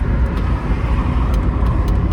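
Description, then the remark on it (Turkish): Steady low rumble of a car driving along a road at about 60, heard from inside the cabin, with constant engine and tire noise filling the space and faint ticks now and then. “Trafik kurallarına uyuyoruz sürerken. Ee, şu an 60'ta gidiyorum hatta.”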